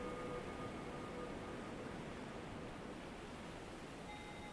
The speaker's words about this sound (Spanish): escucha las olas del mar.